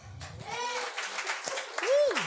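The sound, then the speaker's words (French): A crowd applauds in answer to a question about who has already been to a sex shop, with a steady patter of clapping, while a few voices whoop and shout over it, including one rising, sliding cheer near the end. “Par applaudissement, y a-t-il déjà du monde qui ont été au sex shop?”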